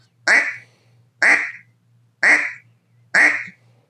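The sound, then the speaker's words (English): Four loud, nasal duck quacks blown on a duck call, evenly spaced about a second apart, each sharp at the start and trailing off, with a faint low hum underneath and no talking. “I'd go out, I had a Drake whistle and a quack, and that's the only thing they respond off of”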